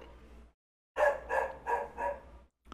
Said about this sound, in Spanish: Aprovechando que ladran los perros